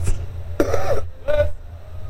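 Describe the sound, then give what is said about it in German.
Someone clears their throat twice, two short, gravelly bursts about half a second apart, over a low steady background hum with no talking. “Räusper-Taste, aber man hört sich halt dann durch die anderen Mikros auch noch.”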